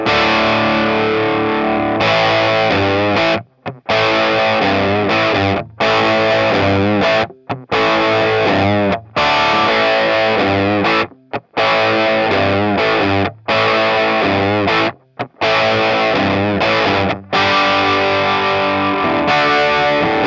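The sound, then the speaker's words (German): Loud, heavily distorted music recorded through three dynamic microphones in turn, a 548, an SM57 and a Beta 57, plays in dense, saturated phrases, broken by short silent gaps as the same passage seems to repeat several times. No one speaks. “Und wir fangen an mit dem ähm, 548, dann das SM57 und dann das Beta 57. Hören wir mal, wie das wohl klingt.”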